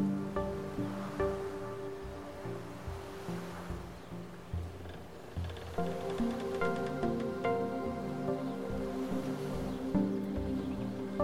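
Wooden creaks groan slowly and repeatedly in rhythm with a steady wash of gentle lapping waves on a lake at sunset, like a moored boat rocking on calm water, with no voices.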